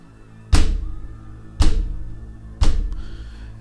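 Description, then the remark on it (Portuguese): Three heavy, booming thuds against a door, evenly spaced about a second apart, each a deep impact that rings out briefly before the next blow lands, as a creature tries to get in. “Houve um baque forte na porta, seguido por outro. Isso continuou se repetindo.”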